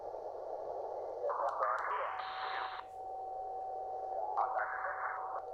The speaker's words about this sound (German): Für CW ist natürlich ein schmaler Filter sinnvoll. Da stimmt jemand ab, da hört man es piepen.